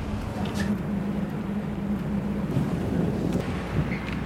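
Steady wind and rushing water as the ship Thunder goes down at sea, a continuous low rumble with a dull drone underneath and occasional bursts of splashing. No one speaks.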